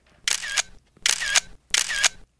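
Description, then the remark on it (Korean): Three camera shutter clicks in a steady rhythm as a singer poses for a three-part heart gesture set for fans, each a bright, crisp burst with a mechanical double-snap, evenly spaced about every 0.7 seconds, with no talking. “자, 카메라 봐주시고.”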